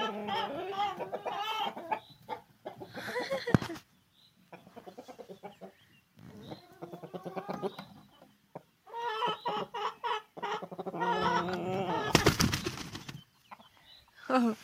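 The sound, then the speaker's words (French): A large rooster clucks repeatedly in loud bursts with short pauses between, with a brief sharp rustle or flap of wings partway through. “Ça, c'était le gros coq.”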